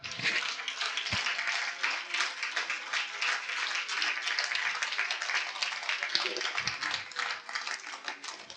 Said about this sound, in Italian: Rifate l'applauso.